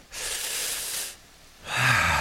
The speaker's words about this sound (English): You can close your eyes if you like. Take a nice deep breath.